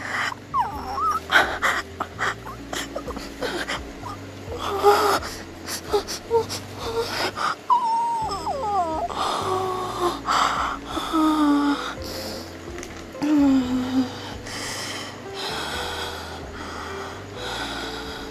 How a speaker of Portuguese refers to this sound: eu seguro no colarinho da sua camisa bastante força e eu começo a gemer na sua cara, a gritar, a te beijar com força.